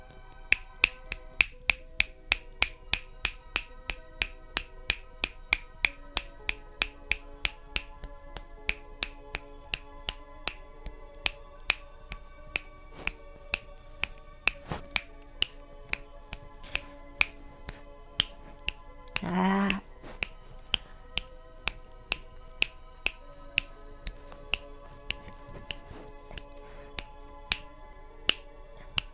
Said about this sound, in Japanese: えー、限界まで指パッチンをするというコーナーでございます。では、始めます。